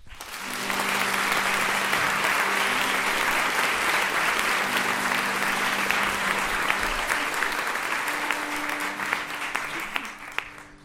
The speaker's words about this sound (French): Merci d'applaudir très fort Balak.